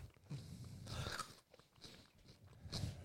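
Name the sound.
crunching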